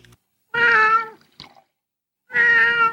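Two loud, drawn-out cat meows, separated by a short pause with a faint brief rustle, no talking.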